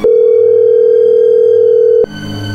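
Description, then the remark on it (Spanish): A telephone ringing tone sounds once as a call is dialed: a steady, loud, low-pitched electronic buzz lasting about two seconds before cutting off abruptly to faint line noise. No one speaks. “Ahí se marca, ahí entra.”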